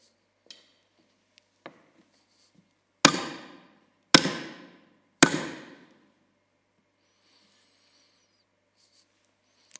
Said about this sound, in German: Hammerschläge, Schmerzen, keine Perspektive mehr, Hoffnungslosigkeit. Diese Nägel durch ihre Hände bedeuteten das aus.